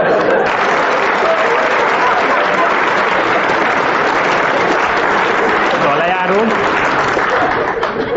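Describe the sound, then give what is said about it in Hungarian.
An audience applauds loudly and steadily for about eight seconds, a dense wash of many hands clapping with no break, while a faint voice briefly surfaces underneath near the end. “Nem zavar a taps egyébként”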